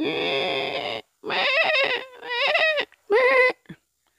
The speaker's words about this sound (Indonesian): Ketika mereka hendak beristirahat, mereka mendengar suara domba yang mengembik.